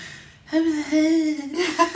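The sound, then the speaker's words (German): A young girl pretending to be a baby, lying on a carpet, imitates baby noises: a drawn-out, whiny coo around a sustained pitch, then a short higher squeal at the end, fairly loud with no actual speech. “Und dann macht sie so ganz seltsame Geräusche, weil sie denkt, das sind Babygeräusche, macht sie immer so.”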